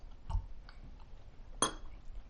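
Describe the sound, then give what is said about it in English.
A couple of sharp glassy clinks, like glasses touching in a toast, with a soft tap first and then a brighter, ringing clink, over quiet room tone and no talking. “Let's get a cheers Real to that.”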